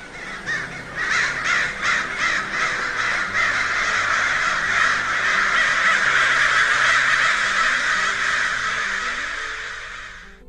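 A loud flock of about forty large black birds, crows, caws continuously, many harsh overlapping calls forming a dense, raucous chorus that persists for about ten seconds. No one speaks.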